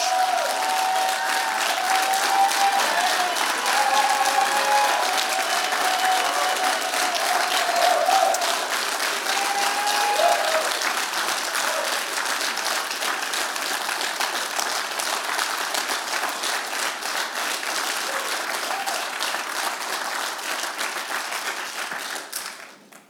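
An audience applauds in a sustained round of dense, steady clapping lasting over twenty seconds, with some faint cheering mixed in, before it quickly fades out at the end.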